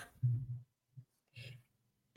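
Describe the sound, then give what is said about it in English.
A person coughs several times in a short, uneven series: a few muffled, throaty coughs followed by one sharp, louder cough at the end, with no talking. “Can, can you please just talk so I can yeah. cough this out?”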